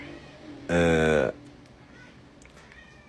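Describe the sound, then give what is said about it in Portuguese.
A single loud, drawn-out cat meow lasting about half a second, followed by faint background noise with a brief spoken syllable. “Ele não, que é isso? Isso é o gato.”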